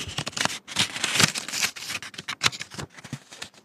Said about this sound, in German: Und dann muss man weiter blättern.